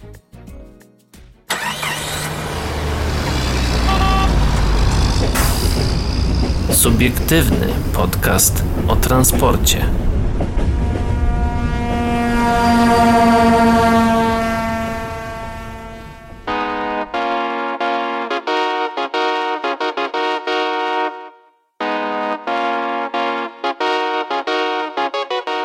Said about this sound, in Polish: a my teraz myślę, że w radiu możemy coś zagrać, a dla słuchaczy podcastu zrobimy małą przerwę, taką dosłownie na dżingielek i, i wracamy do Was.